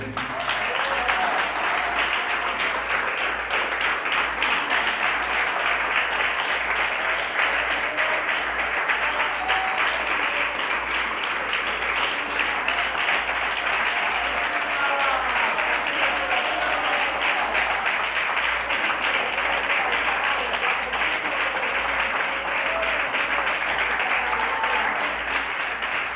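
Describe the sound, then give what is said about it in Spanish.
An audience applauds steadily for the whole stretch, a dense, continuous roar of many hands clapping at a constant, fairly loud level, with faint voices and cheers mixed in. “Denle un aplauso corazón, Señor, se lo merece.”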